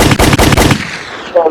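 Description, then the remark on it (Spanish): A quick burst of about four loud pistol shots, played as a sound effect, fired in rapid succession, each a sharp crack, followed by a fading echo and a short, faint tonal tail. “¿O te gustaría ser Mario Almada para que nunca se te acaben las balas de la pistola?”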